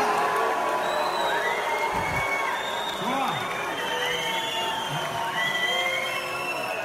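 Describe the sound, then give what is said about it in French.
A large crowd at a political rally fills the air with whistles, overlapping shrill rising and falling pitches over a steady roar of voices and shouts, loud and continuous throughout. “On a déjà dit dans les meetings d'Emmanuel Macron, on ne siffle pas.”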